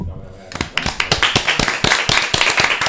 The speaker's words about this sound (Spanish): Da un aplauso, venga.